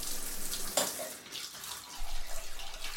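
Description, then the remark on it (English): A tap runs cool water in a steady hiss of flowing water, with a brief brighter splash near the start and the stream swelling slightly toward the end. “I knew I should just go to sleep like she told me to, but it was just some cool water to soothe the irritated flesh.”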